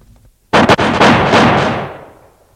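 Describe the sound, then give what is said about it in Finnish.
A firing squad's rifle volley at men standing by a sauna wall in a snowy forest clearing: a loud burst of several overlapping gunshot cracks in quick succession, followed by a long rumbling tail that fades over about two seconds. No voices. “Tulta!”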